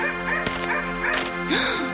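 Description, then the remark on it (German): A dog barks a few times in short, sharp bursts, fairly loud, over a steady tonal background, then lets out a brief rising-and-falling whine. “Hoi, da bellt ein komischer Hund.”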